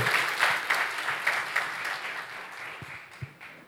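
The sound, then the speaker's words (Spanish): An audience applauding the Lord together, a dense, steady wash of many hands clapping at a moderate level, with a few sharper individual claps standing out before it thins slightly toward the end. “Dele fuerte ese aplauso al Señor y coloquémonos en pie.”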